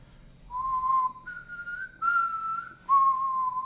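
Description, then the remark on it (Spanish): A person imitates a little tune by whistling it: a short, slow tune of four sustained notes, each held clearly and separated by small pitch steps, fairly loud with no talking. “Así esa tonadita, güey.”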